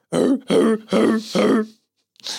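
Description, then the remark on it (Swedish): A voice imitates a desert Sand Warriors' war cry: four rough, guttural barking bursts in a quick rhythm, loud, followed by a brief breathy sound after a short pause. “Så låter det. Sand, Sand Warriors.”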